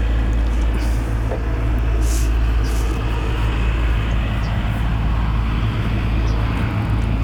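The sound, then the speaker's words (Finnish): A tractor passing by in the countryside rumbles loudly and steadily, a deep continuous engine drone with a throbbing low hum that holds its level throughout, with no talking. “No, traktori menee ohi.”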